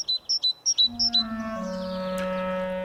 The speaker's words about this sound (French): Les voleurs de crème étaient des oiseaux, des mésanges, des mésanges charbonnières et des mésanges bleus ces mésanges multicolores avec leur couvre chef bleu, leurs plastron de plumes jaunes, leurs faces blanches